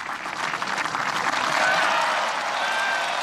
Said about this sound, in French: Ils viennent de signer les accords d'Oslo, avec en ligne de mire à terme la paix entre les deux parties. Ils applaudissent. L'accord vient d'être signé.